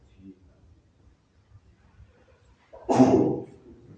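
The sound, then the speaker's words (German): A single sharp, loud sneeze bursts out near the end after a stretch of quiet, low background murmur, then fades quickly. “Gesundheit.”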